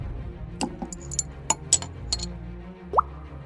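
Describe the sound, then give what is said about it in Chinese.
Drops of holy water fall one by one onto a head during an exorcism, in an uneven rhythm, a handful of small, light plops and ticks, ending with a slightly louder drip that has a quick upward-bending pitch. No one speaks. “才刚滴下圣水，只见到阿比突然大吼了起来”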